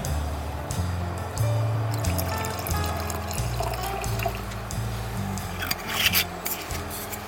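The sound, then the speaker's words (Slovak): Sauvignon wine from southern Slovakia is poured steadily into a glass, a continuous gurgling splash whose pitch shifts as it fills, with no talking, ending in a few light clinks. “No, Sauvignon určite, veľmi Sauvignon. rád. Tak to otvoríme.”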